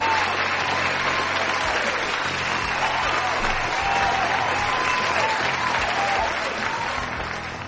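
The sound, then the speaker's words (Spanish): Sustained applause sent live to people connected from Player Posca and Gamers del Condado, a dense, steady wash of clapping that holds loud for several seconds before tapering slightly at the end, with faint voices mixed underneath. “Hombre, di que sí, les vamos a mandar un aplauso de júbilo desde aquí, para todos ellos en directo.”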